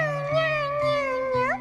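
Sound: cat meowing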